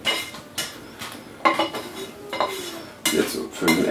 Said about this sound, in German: Ich fülle die jetzt auch in die hohe Pfanne um. Das habe ich ja alles in der Pfanne drin, was ich da drin haben will.